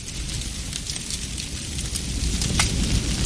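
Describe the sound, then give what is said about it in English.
A spreading household fire crackles and pops steadily over a low, continuous roar in the middle of the night, with scattered sharp snaps growing slightly louder toward the end. No voices are heard. “In the middle of the night, there are two sounds a spreading household fire can make.”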